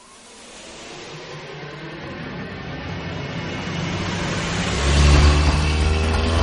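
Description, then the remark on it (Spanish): The engine of Walt's car in Breaking Bad revs as he drives at full speed, its roar climbing steadily in loudness and pitch, with a deep low rumble surging near the end. No voices are heard. “Walt conduce a toda velocidad.”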